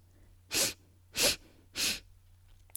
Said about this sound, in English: Ready? Three quick sniffs and a long exhale. Let's do three more. Ready? Three quick sniffs.